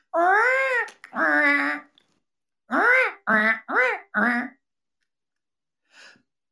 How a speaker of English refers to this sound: But to function well, the hinge has to have an alignment. When the hinge is not aligned, when one piece is out of place, it makes a squeaky, irritating noise.